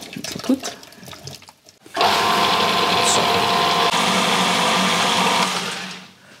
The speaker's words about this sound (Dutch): Ehm, blender? Yes.